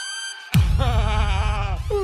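A goat bleats once, loud, a wavering, quivering cry that starts abruptly and lasts about a second before breaking off, with no voices around it.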